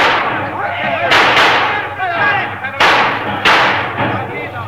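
Four loud, sharp gunshots crack out at irregular intervals, two in quick succession and then another pair, over a constant dense clamor with shouting voices, as bandits try to raid a train stopped by a big boulder on the tracks in the desert about 50 miles from Perla.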